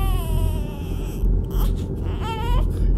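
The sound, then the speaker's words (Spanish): High, piercing shrieks like those of a very small child, heard at night in dark corridors, in a few drawn-out wailing bursts over a steady low rumble, with no talking. “escuchó de pronto chillidos, como los de un niño muy pequeño cosa que le puso los pelos de punta.”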